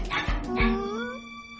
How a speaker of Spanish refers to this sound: ¿Qué clase de perro es ese? Es un... No lo sé.